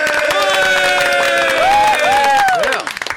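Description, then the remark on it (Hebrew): A metal music audience applauds and cheers in a steady wash of clapping, with high sustained tones gliding up and down over it, breaking into a few scattered claps at the end. “ומחיאות כפיים לכולכם!”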